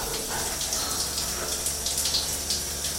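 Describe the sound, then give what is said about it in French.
Shower water runs in a steady, unbroken hiss, with faint brighter splashes flickering through the spray. No one speaks. “Je laisse couler l'eau.”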